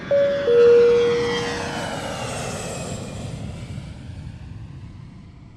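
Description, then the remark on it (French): An airplane roars as it takes off, a loud, broad engine rumble that slowly fades as the aircraft pulls away, with a brief tonal whine near the start. “Prêt pour le décollage.”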